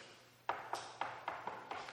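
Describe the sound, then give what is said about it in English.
Seven quick knocks on a door in a steady rhythm, each one a sharp, hollow rap that fades briefly before the next. Moderately loud, with no voices. “a knock at the door.”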